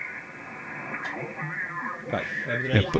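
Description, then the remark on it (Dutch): Steady radio static from a 7610 receiver crackles and hisses for a few seconds, muffled and band-limited, with warbling tones and garbled voice-like fragments drifting through the interference and a few sharper bursts near the end. “Kijk, nou, er zit dit is gewoon herrie.”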